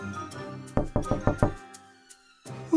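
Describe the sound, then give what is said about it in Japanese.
Five firm knocks on a wooden cottage door, the wolf knocking at grandmother's door in the Little Red Riding Hood story, in quick, even succession and clear, followed by a brief quiet pause before soft background music resumes. “At last he reached the porch covered with flowers and knocked at the door of the cottage”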